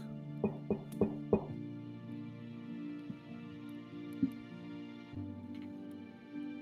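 Four quick, evenly spaced knocks on a wooden door ring out at the start, followed by a soft, sustained musical drone that continues on its own.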